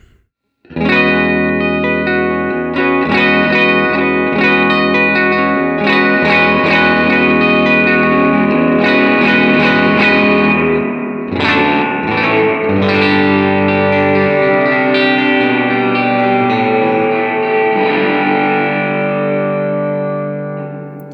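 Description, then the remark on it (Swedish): Electric guitar playing sustained chords as its overdrive is gradually turned up from about eleven o'clock to three o'clock, the tone growing thicker and more distorted. It rings loud and steady for about twenty seconds, with no talking. “kommer jag successivt öka driven nu då.”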